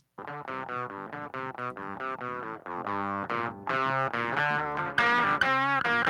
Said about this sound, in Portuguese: Ó, achei aqui uma um áudiozinho que tem das guitarras separadas para mostrar a guitarra do Edgar nesse nesse amplo do Rhodes e a do Catatal. Ó, essa aqui seriam as duas do Edgar.